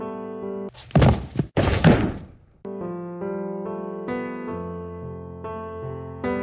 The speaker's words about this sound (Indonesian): Namun naas, saat dia berlari melewati genangan air, badannya terpelanting sampai menghasilkan bunyi